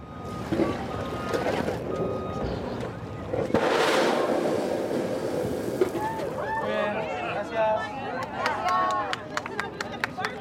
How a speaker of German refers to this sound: und Sekunden später ein Wasserdampfstrahl fauchend in die Höhe schießt.